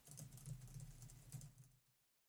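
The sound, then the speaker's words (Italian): Soft, quiet typing on a new wireless Logitech Mix Keys computer keyboard, a quick run of muffled key taps with a low steady hum underneath, stopping before the end, followed by silence. “Esatto, perché ho cambiato tastiera per quando registriamo.”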